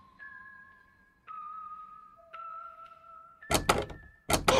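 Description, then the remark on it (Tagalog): Heavy thuds pound against a door in two loud bursts of rapid knocks, following a few seconds of sustained eerie tones with no talking; someone inside a room of a house is banging on the door and trying to force it open. “Buksan niyo to! Dulo! Buksan niyo ang pinto!”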